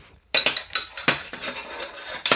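Small metal tubes of different lengths clatter together, a burst of bright, irregular metallic clinks and rattles with a few sharper hits, no voices.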